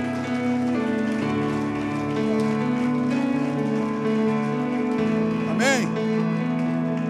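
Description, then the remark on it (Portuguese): An audience applauding the Lord at an evening church service, a dense, steady wash of clapping that holds for the whole stretch over sustained keyboard chords, with a voice rising briefly above it near the end. “Você pode aplaudir o Senhor nessa noite? É isso aí. Isso. Aplaude aí.”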